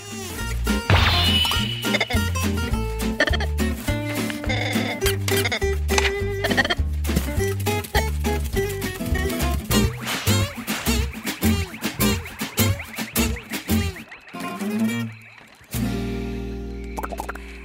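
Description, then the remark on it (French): A bright trailer and theme music track driven by rapid, rhythmic mouth-popping bubble sounds, crisp little "poc poc poc" pops repeating over a steady bass line, fairly loud, with a brief drop near the end. “Alors, ce que vous avez entendu, c'est la musique en fait euh, de, la bande-annonce et le thème, c'était le petit bruit de bouche avec les bulles, poc poc poc.”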